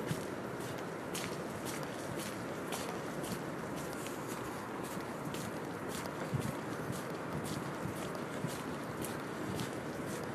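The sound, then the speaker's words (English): Steady footsteps tread over wet ground at Saltram, ground that is normally crunchy, in a regular rhythm, the impacts soft and muted rather than crisp, with a continuous outdoor wash underneath and no talking. “Oh, it's not as crunchy as normal because it's all wet.”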